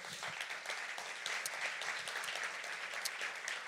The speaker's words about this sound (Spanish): Entonces, el objetivo, darle un aplauso al Señor.